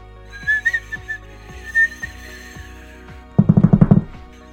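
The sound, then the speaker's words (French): Fireworks: a rising, wavering whistle streaks through the first two seconds, followed near the end by a quick volley of sharp, crackling bangs fired in rapid succession. “terrifiée par le bruit des explosions et l'agression des flashs lumineux.”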